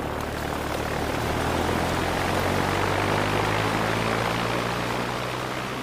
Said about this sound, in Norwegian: Det er blitt kveld 17.6. Latam 47 takser ut Puddefjorden, starter motoren og setter kursen nordover mot Tromsø.